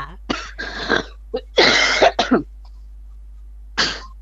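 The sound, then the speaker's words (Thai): A series of harsh coughs comes in quick irregular bursts, then a brief pause before one final cough. No one speaks. “ขออนุญาตไอแป๊บหนึ่งค่ะ”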